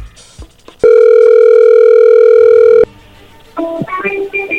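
A telephone being dialed for a call to Colombia: a loud, steady dial tone holds for about two seconds, then after a brief lull a quick run of electronic keypad beeps follows. No one speaks.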